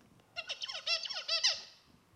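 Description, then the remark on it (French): A recorded song of a tutor songbird that had received RNA interference targeting the FOXP2 gene: a rapid song of repeated high, harmonic chirps and warbled syllables, about a second long, played back clearly with no talking over it, then trailing off into quiet. “Le tuteur, écoutez, avait, après avoir reçu l'ARN interférent au niveau de l'air 10”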